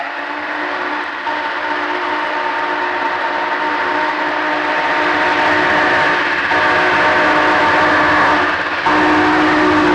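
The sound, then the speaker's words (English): A special train, run by the High Iron Company in May 1973 to commemorate the 150th anniversary of the founding of the Delaware and Hudson Railroad, rumbles along with a loud, sustained whistle blowing steadily over the steady roar of the cars, continuing for the whole stretch with no voices. “So now let's fast forward to May of 1973 and the special train the High Iron Company would run to commemorate the 150th anniversary of the founding of the Delaware and Hudson Railroad.”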